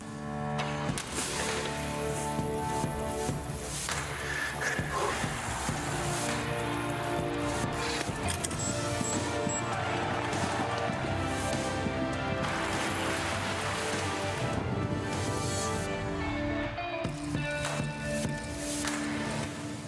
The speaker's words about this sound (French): Ce générique, c'est celui du Tour de France, bien sûr, et cette année, on l'entendra plus tôt, au moment de la rentrée scolaire, dès la fin du mois d'août.